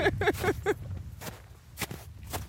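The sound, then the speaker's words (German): Footsteps crunch and squelch through wet, slushy snow about five centimetres deep in a steady walking rhythm, fairly loud, with a few soft sloppy impacts and light rustling between strides, on a mountain hike. “Man hört's, wir gehen jetzt seit geraumer Zeit durch Schnee, nassen Schnee, patscht.”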